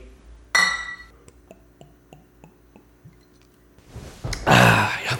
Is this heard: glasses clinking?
yes